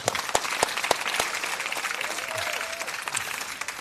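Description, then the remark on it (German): Steady audience applause for author Viktor Funk on the Blue Sofa (blaues Sofa), a dense wash of many hands clapping at moderate loudness, with sharper individual claps popping out irregularly throughout and no one speaking over it. “Einen herzlichen Applaus für Viktor Funk hier auf dem blauen Sofa.”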